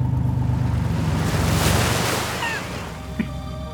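vehicle, car driving off

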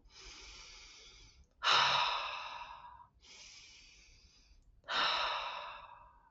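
human body sound, deep breathing demonstration

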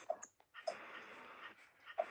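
animal, dog whimpering and panting

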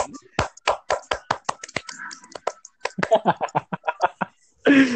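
crowd, hand clapping

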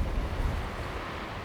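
nature, wind blowing

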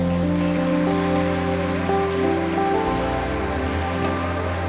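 crowd, loud applause

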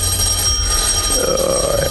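household object, doorbell ringing

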